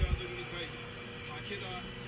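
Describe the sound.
A muffled recorded TV broadcast of a FREEDOMS wrestling match plays in the background: a steady, rumbling din with indistinct voices and a brief low thump at the start.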